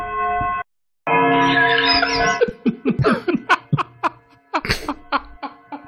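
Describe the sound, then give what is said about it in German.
A clock bell, on a clock wound every three days, strikes twice, each stroke a sustained ringing tone with a brief pause between, and then people break into bursts of laughter. “Das war der initiale Glockenschlag.”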